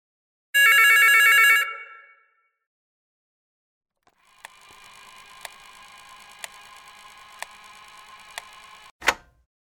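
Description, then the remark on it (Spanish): A telephone on the other side of a wall in a home rings in the morning in one loud, rattling burst lasting about a second, then fades. After a pause, a steady hiss carries regular ticks about once per second, ending in a sharp click. “Un teléfono.”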